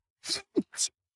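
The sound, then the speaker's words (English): A quick, fairly soft sneeze: a breathy hiss, a short voiced catch, then a second sharp burst of air, all within about a second and with no talking around it. “Bless you.”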